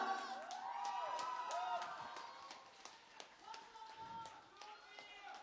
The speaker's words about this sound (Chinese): 大家晚上好，欢迎大家来到嫣然天使基金。爱音乐二零二一年的第一场火星电台的专场，请把热烈的掌声送给每一个有爱的你们。